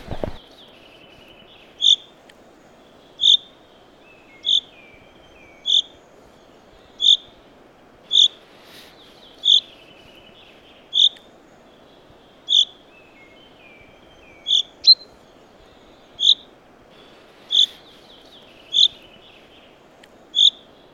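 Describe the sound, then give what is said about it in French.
A chaffinch calling: sharp, high chirps repeated steadily about once a second, with faint softer notes in between, over a low, constant background rumble. No one speaks. “Tiens, on l'entend chanter le pinceau.”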